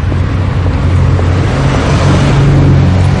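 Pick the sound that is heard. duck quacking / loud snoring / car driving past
car driving past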